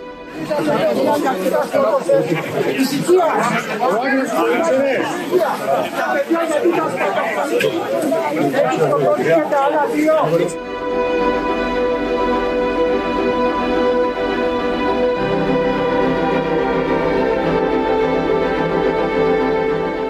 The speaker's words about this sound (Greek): Τα μέτρα ασφαλείας ήταν δρακόντια, το πλήθος ήταν οργισμένο.